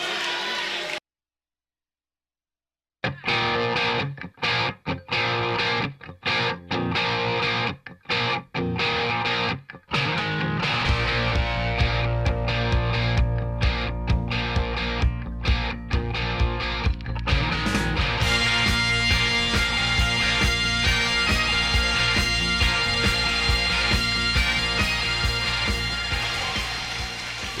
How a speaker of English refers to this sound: that kind of night where you need a little bagpipes entering the final seconds here of the third quarter.